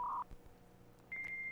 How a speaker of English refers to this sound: That's it connecting to your phone lines and going into the ether of the internet world.